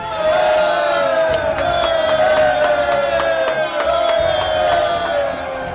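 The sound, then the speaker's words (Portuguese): A loud, continuous battle uproar of many voices shouting and yelling together at the walls of Castelo Rodrigo, with its garrison fighting Spanish invaders, punctuated by repeated sharp clashing hits, holding a steady intensity for about six seconds. “É claro que, vento daquilo lá do Alta Muralha, a algazarra era enorme.”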